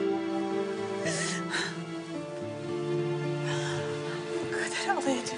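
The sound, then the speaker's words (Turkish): A woman sobs on Bayezid's shoulder in short, broken bursts over a sustained, mournful musical backdrop, her crying moderately loud, rising and falling in uneven waves. “Mecmah bayazıtın omzunda ağlamaya başladı.”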